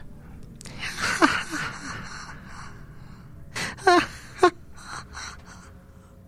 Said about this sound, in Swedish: viskningarna utav skratt från, från barn.